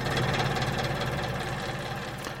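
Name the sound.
electric fan running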